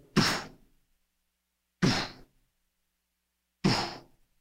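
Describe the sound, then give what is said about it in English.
Three heavy thuds of stones dropped onto the ground, one at a time with steady pauses between, each a short crunching impact that quickly fades. No one speaks. “as one by one, these stones that were going to mean her execution are dropped to the ground.”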